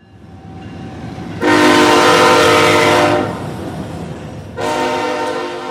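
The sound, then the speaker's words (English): A train horn blasts twice, loud: a long, blaring chord followed by a second blast that starts just as the first fades, all over a steady rumble of the passing train. “Just ahead, the blast of a train horn is meant to keep you safe, but for those living next to the tracks, it's also pretty annoying.”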